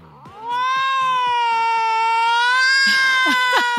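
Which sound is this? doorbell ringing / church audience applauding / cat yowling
cat yowling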